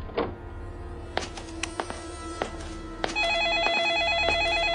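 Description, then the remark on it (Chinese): A few scattered clicks and soft knocks, then a telephone starts ringing with a steady, warbling electronic trill that alternates rapidly between two pitches and keeps going, fairly loud, to the end. “电话铃还在不断的响着，响得让人心里发毛。”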